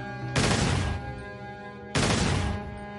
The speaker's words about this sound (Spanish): Sacó su pistola ¿Dónde está tu valor? Le preguntó un artillero mientras le atravesaba la cabeza de un disparo.